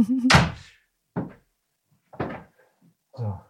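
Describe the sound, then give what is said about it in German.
A chair is shoved against a door that keeps opening: a loud thud, then three shorter knocks and scrapes spaced about a second apart, with silence between. “Warte mal, ich stelle einen Stuhl davor.”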